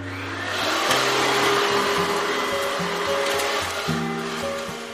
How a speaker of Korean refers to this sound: 마지막으로 청소기도 돌리고 걸레질도 했죠.